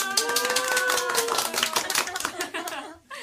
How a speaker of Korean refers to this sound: 네, 박수.